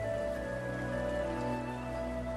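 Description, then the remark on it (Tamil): A mountain stream rushes steadily over rocks in dense forest, a continuous, even wash of water noise, moderately loud, with no voices. “மலை ஏற ஏற அடர்த்தியான காடு நமக்கு துணையா பறவையோட சத்தம் பாறைகளுக்கு மத்தியில வர ஓடையோட இசை”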